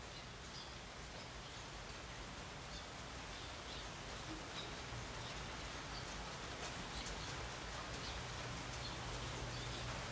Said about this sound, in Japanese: 雨の中でこれを撮ると多分聞けたもんじゃないんだろうなと思って今までやってなかったんですけどもどうっすかね結構うるさいですかね